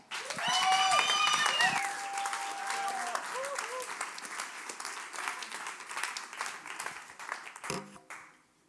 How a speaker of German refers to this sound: Und wir dürfen noch aufstehen und einen Applaus geben.